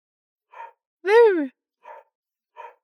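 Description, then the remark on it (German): A voice imitates a dog barking: one loud, drawn-out yelping bark in the middle, with three short, breathy huffs spaced around it, and no other sound. “Wuff, wuff. Ich will den Dr. Hund nicht machen Lärme. Shut up!”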